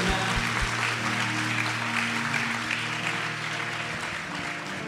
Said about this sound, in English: One more time, let's just clap our hands. It's so good.